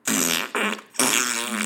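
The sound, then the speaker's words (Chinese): Three loud, buzzy farts in quick succession in a dormitory, made by a person lifting one buttock off the floor to demonstrate, the first two short and the last one longer and drawn out, with a steady low rasping tone and no talking. “发出一连串响亮的屁声”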